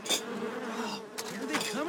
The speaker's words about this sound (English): Get the fucking bee out of here, man